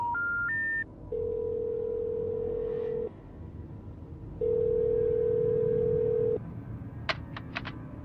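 A phone call being placed to a younger cousin: a few quick rising dial beeps, then two long steady ringback tones separated by a pause, ending with a few short high chirps. No one speaks.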